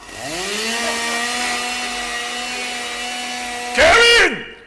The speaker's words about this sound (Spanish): Voy a estrenar esta motosierra que compré en una venta de garaje de unos uribistas para que el gusano asqueroso que dice que es mi hijo se despierte inmediatamente y no diga que quiere dormir cinco minuticos más.